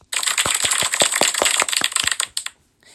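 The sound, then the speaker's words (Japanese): A burst of applause sound effect: dense, crisp clapping crackles steadily for about two and a half seconds, then stops abruptly, leaving near silence. No one speaks. “いまだにこの拍手の効果音をかけながら自分も拍手する癖をやめたい。”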